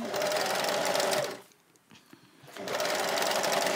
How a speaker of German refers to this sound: Es ist übrigens ganz schön ungewohnt, wenn man an einer anderen Nähmaschine, die einem nicht selber gehört, näht, ne?